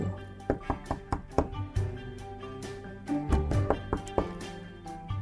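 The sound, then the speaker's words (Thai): Several sharp knocks on the wooden door of the dwarfs' house, made by the disguised queen in the Snow White tale, come in short irregular bursts, clear, with a soft sustained musical tone underneath. “เมื่อเตรียมแอปเปิลพร้อมแล้ว นางก็แต่งหน้าแต่งตัวเหมือนกับสาวชาวไร่ข้ามเขาไปเจ็ดลูก เพื่อไปอยังบ้านของคนแคระ เมื่อไปถึงก็เหมือนเดิม นางเคาะประตู”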